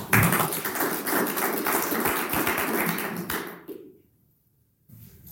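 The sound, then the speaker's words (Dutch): An audience applauds a speaker after a talk with dense, steady clapping for about three and a half seconds, then the clapping fades out into near silence. “Mag ik een applaus?”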